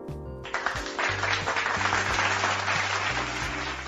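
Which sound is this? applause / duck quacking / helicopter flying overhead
applause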